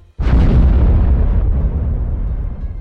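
A sudden, heavy bang as a large wave slams into the front of the ship Estonia at 00:55, in stormy weather with waves 4–6 metres high, followed by a deep rumbling roar that slowly fades. Loud, with no voices.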